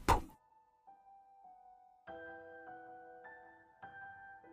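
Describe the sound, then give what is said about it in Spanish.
A walking staff strikes the floor once with a loud, hard thud at the start, leaving a short ringing tone, followed by sustained resonant musical tones with no talking. “Me estremezco, pero doy un sonoro golpe con el bastón en el suelo.”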